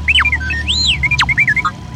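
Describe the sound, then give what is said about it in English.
R2-D2 robot beeping: a quick, loud run of warbling electronic chirps and whistles sliding up and down in pitch, with a low steady hum underneath and no talking. “I didn't realize you were planning to replace me with a robot.”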